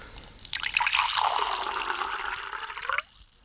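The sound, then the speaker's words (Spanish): Water pours steadily into a glass for about two and a half seconds, a splashy gurgle whose pitch rises as the glass fills, then stops abruptly. No one speaks. “Tomemos un poquito más de agua”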